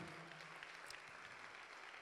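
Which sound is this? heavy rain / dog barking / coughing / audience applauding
audience applauding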